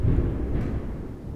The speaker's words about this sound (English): Yeah, the thunder knows we're getting into some some stuff now.